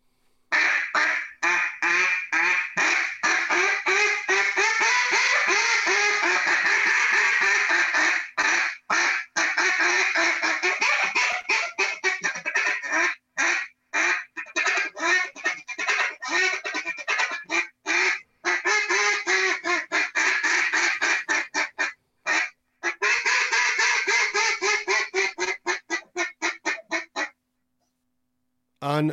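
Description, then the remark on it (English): A rapid, continuous run of loud duck quacks blown on a Jargon Mega 4 duck call, rolling in fast rhythmic cadences with a few brief pauses before stopping near the end. “end it by giving us a little bit of those quacks again and running it into what we're going to bring next time of how you can take those quacks and turn them in to some cadences of greeters.”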